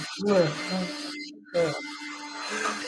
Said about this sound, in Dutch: Als uh, hier de stofzuiger zo uit is, gaan we beginnen.